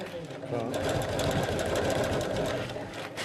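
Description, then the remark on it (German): A sewing machine runs steadily, its rapid needle clatter forming a dense, even rhythm for a few seconds while stitching a simple hem sewn down once. “Also ich mache jetzt gerade die einfache Saumnaht. Also sozusagen wird einmal abgenäht.”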